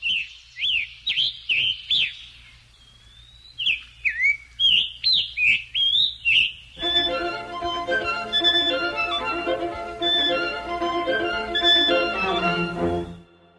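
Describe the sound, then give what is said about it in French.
A Scarlet Tanager, a passerine of the cardinal family, sings a series of short, hoarse, robin-like phrases in quick succession, clear, for about seven seconds before a string quartet takes over, taking up the bird's song, and plays on to the end. “c'est à l'évidence le chant d'un Scarlet Tanager, un piranga écarlate, un passereau de la famille des cardinalidés, dont le plus typique est le cardinal rouge.”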